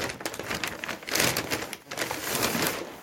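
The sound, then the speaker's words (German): A plastic bag crinkles and rustles continuously, with dense, crackly bursts that swell louder around the middle and stay busy to the end; no one speaks. “Das ist so eine komische Tüte.”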